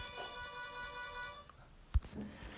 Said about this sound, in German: So, wenn ihr gerade das Klingeln gehört habt, was uns ein bisschen irritiert hat, ja, so passiert es, wenn die Nachbarn kurz vorbeischauen. Ähm, natürlich nur an der Tür.